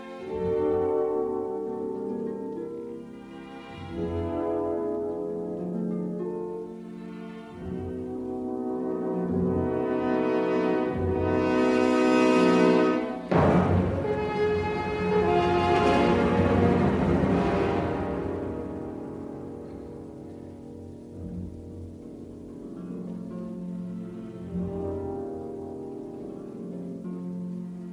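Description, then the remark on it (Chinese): A French horn, a brass instrument made of tubing coiled into a circle, plays a slow, warm melody of sustained notes, swelling to a fuller, brighter passage midway before settling back to softer held tones; no one speaks. “铜管乐器家族从法国号开始，这些乐器是用铜管盘成圆形制成的。”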